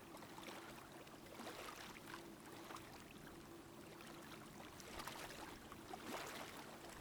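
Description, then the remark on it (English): Soft, steady wash of ocean water with gentle swells rising and falling, waves breaking faintly and drawing back in a continuous hiss, fairly quiet with no voices. “You're just listening to those waves crash and then recede out.”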